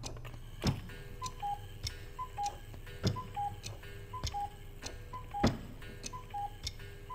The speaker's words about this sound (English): listening to the sound of silence for hours, I started to relish every cackle of the cuckoo clock.